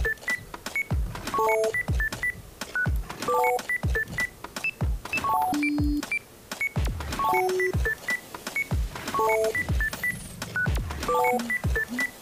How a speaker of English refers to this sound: That's my fear mongering sound effect. I don't know if you can hear it. Sounds like a laser.